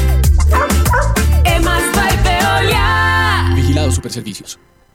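dog barking

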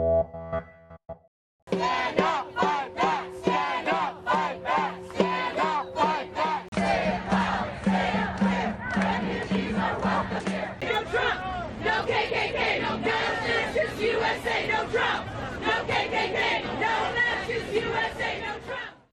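protest crowd chanting

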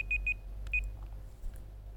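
alarm beeping

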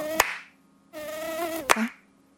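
tiger mosquito buzzing

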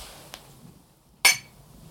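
glasses clinking

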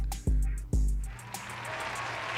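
round of applause

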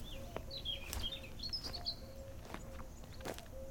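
birds chirping

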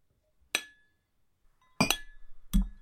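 glasses clinking

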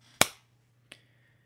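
brief applause

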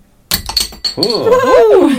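glass bottle being opened

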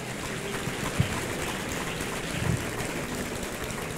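audience applause

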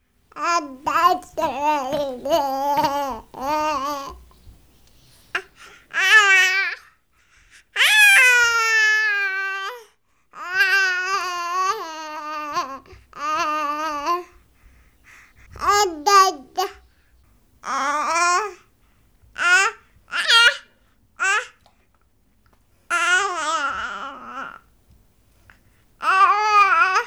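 baby babbling

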